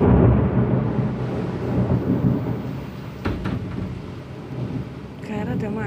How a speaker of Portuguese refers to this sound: é que eu tô no meio da chuva, mano. Tô aqui pertinho da janela. Só vendo a chuva. E os trovões e os raios.